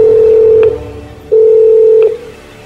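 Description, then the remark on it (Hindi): A hotel corridor telephone rings at about half past one at night, with two loud, steady electronic tone bursts, each under a second long, separated by a short pause. No voices or other sounds accompany the ringing. “लेकिन तब तक जब तक रात के करीबन डेढ़ बजे कॉरिडोर का फोन नहीं बजा”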